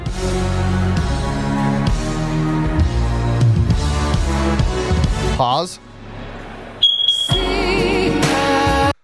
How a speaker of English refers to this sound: going berserk during the Black National Anthem, the DEI National Anthem at the uh, at the Super Bowl, and all of a sudden through the PA came this loud beep beep beep beep beep beep. I'm gonna play it. It's about seven seconds in here. Take a listen.